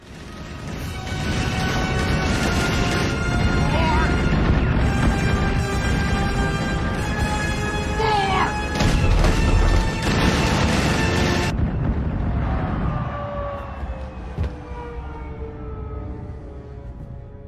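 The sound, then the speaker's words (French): The theme jingle of the 'Plus de news' news segment: a loud, dense run of booming, crashing effects layered with sustained tones; it cuts off after about eleven seconds and leaves a fading low rumble, with no one talking. “Euh, du coup, je vais envoyer le générique du plus de news.”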